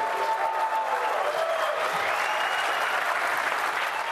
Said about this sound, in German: Unter tosendem Applaus unterzeichnete Brasiliens Präsidentin Dilma Rousseff zum Auftakt der NET-Mundialkonferenz ein nationales Gesetz, den sogenannten Marco Civil, der Grundrechte für das Internet auf brasilianischem Territorium festschreibt.